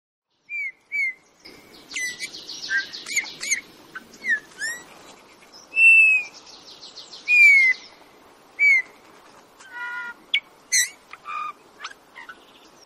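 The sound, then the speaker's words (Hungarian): Eurasian bullfinch (Pyrrhula pyrrhula) calls: soft, slightly descending piping whistles, two louder ones standing out, amid a busy mix of quick high chirps and twitters from other small birds over a low steady hum. “Süvöltő (Pyrrhula pyrrhula)”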